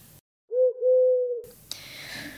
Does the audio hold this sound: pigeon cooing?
yes